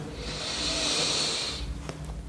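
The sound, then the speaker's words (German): A long, deep breath drawn in through the mouth during a guided breathing exercise, a steady airy hiss lasting over a second, fairly soft, followed by quiet stillness with a couple of faint clicks. “Wir nehmen diesen tiefen Atemzug und atmen ein”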